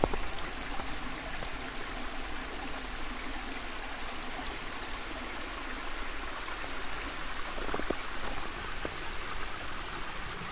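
A small brook babbles steadily, a continuous bright wash of flowing water with occasional soft splashes and trickles, no voices over it. The brook runs through a small cutting on the way down to a reservoir.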